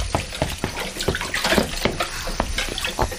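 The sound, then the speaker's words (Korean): Running tap water splashes steadily into a sink, with intermittent clinks and knocks of dishes being handled as someone washes the dishes; no one speaks. “아빠, 설거지 제가 할게요.”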